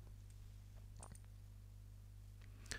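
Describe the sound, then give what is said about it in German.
The air chimney section of an atomizer, the part that comes after the top cap, is unscrewed and pulled free, giving a few soft clicks and scrapes, ending in one sharper click, all over a steady low hum. “Man schraubt es einfach auch auf. So, und kann das dann rausziehen.”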